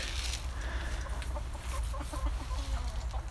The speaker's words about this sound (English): Um, the uh, the chickens. Let me just see. They've just gone back on inside. They're probably running away from me. Here, chicky, chicky, chickies! Have some more corn. God's sake. cheeky, cheeky, chickies!